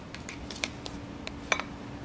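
Soft, wet squishing and light scraping taps as hair dye paste containing alkalis and dyes with hydrogen peroxide is stirred in a bowl, a few irregular, quiet strokes, over a faint steady background hum.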